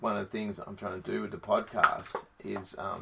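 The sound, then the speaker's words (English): A single sharp snap of a dog's jaws as it snaps at a fly in a room cuts through a man's steady talking partway through, brief, standing out as a quick click over the voice. “that's just my dog snapping at flies.”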